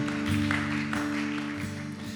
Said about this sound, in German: Lasst uns einen Applaus geben und das feiern, wenn Menschen eine Entscheidung treffen. Lasst uns Jesus feiern.